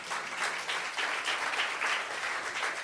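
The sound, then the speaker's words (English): A crowd applauds steadily, a dense wash of many hands clapping at once that holds at an even level throughout, with no voices over it. “Applaud that.”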